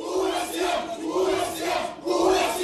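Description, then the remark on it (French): The family and relatives of a missing 18-year-old girl shout and chant together in front of the courthouse in Nîmes, France, in angry, overlapping voices, a dense continuous roar with rising and falling surges, fairly loud, with no single voice standing out. “Ou sous les mots, l'inquiétude et la colère de la famille et des proches de cette jeune fille de 18 ans, cette lycéenne a disparu depuis une semaine.”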